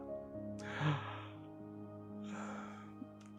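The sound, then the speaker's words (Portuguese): A soft yawn, done as a relaxation technique: a long breathy, slightly voiced inhale, then after a pause a second drawn-out airy breath, with no talking around it. “E aí, no momento que vier esses pensamentos, você começa assim: boceja.”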